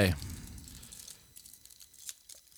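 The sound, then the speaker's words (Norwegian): Close-up crinkling and rustling of wrapping being handled, a steady run of small crackles and crunches with a brief voice fragment at the very start. “Ja, for det er noe av, opple opplevelsen er innpakkingen. Det her var veldig godt innpakka òg.”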